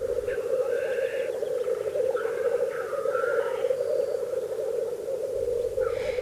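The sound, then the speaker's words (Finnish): A continuous chorus of black grouse males bubbling at a spring lek, older cocks at the centre and young males farther off, a dense, steady rolling coo from many birds at once, with occasional higher calls rising briefly above it. “Maisema täyttyy teerien puputuksesta.”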